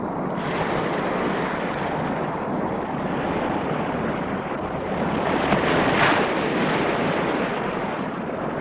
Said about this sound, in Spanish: Al día siguiente, por la mañana, el agua del mar azota las orillas de la ciudad de Valencia.